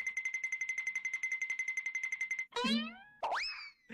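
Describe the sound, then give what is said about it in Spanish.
A goofy cartoon sound effect used in many memes: a rapid, rhythmic boing-like warble for about two and a half seconds, then two swooping, springy boings with falling and rising pitch, loud, no voices. “Esto Goofy Cartoon no, Lo voy a poner.”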